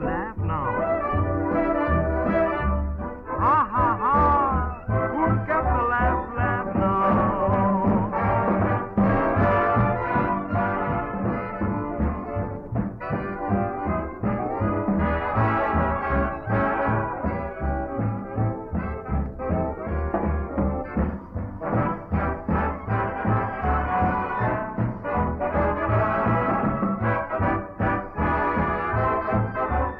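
A propaganda big band's swing recording plays steadily throughout, brass and rhythm section filling the sound at a consistent, fairly loud level, with the muffled, narrow tone of an old record and no talking.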